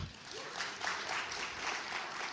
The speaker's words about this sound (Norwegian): Liten applaus